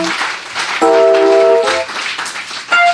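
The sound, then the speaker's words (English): An audience claps in praise of the Lord Jesus after preaching, a dense, steady wash of applause for the whole stretch, while sustained keyboard or organ chords swell over it partway through and again near the end. “Give the Lord Jesus a hand clap of praise.”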